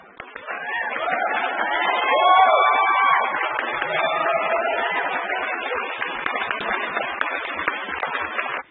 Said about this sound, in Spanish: Las recibimos con un fuerte aplauso, por favor.